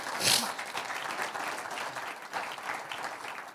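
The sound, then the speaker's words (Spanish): An audience bursts into steady applause for the Lord during a sermon on fasting, many hands clapping in a dense, continuous patter that holds at an even level for several seconds, with no voices standing out. “Un aplauso al Señor, denle un aplauso al Señor.”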